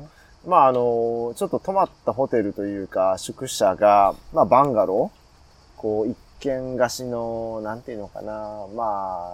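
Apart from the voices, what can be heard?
cicadas singing outdoors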